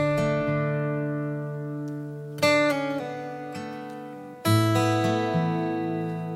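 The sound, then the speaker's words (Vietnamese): A soft instrumental passage with sustained harmonic tones and a couple of new chords struck around the middle and near the end, warm and steady, with no voices. “Mọi người cùng nghe bài này với mình nhé.”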